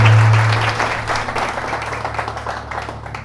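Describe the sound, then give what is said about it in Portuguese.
An audience breaks into sustained applause for the king, a dense wash of many hands clapping at once, loud at first and gradually tapering off, with a low steady hum underneath. “Quem crê nisso, aplauda o rei.”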